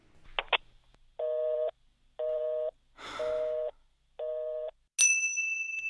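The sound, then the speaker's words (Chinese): A sharp click of a phone hanging up, then a telephone busy tone: four steady, evenly spaced beeps, one overlaid by a brief hissing rush, followed by a bright, ringing ding. “核桃沉默了几秒，呃，挂了电话。”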